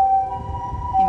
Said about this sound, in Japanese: 救急車が通りました